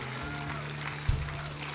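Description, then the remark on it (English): An audience claps their hands together, a dense, steady wash of many hands at moderate loudness, running continuously over a low droning hum, with a brief thump near the end. “Come on, clap your hands.”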